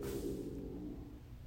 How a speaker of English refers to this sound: That was my stomach, guys. I'm sorry if you can hear that.